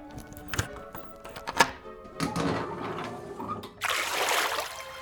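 rushing flood water

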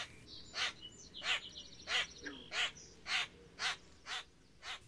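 hoarse

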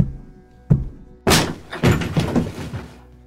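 door being kicked in

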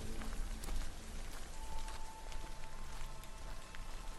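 pouring rain

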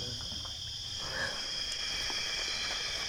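frog calling

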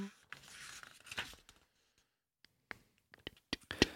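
flipping through paper pages

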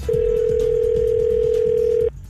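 telephone dial tone

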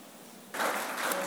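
weak applause

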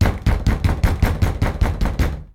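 banging on a door

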